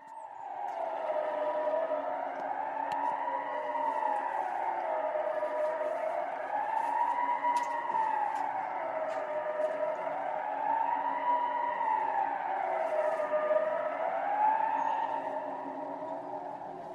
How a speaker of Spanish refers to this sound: Claro, después de escuchar esto, lo grabé un poco para el podcast, para, que lo pudieses escuchar, y, me quedé extrañado. Dije, ¿una alarma? una, sirena? ¿Esto, ¿Esto qué puede ser? Esto solo puede ser algo malo.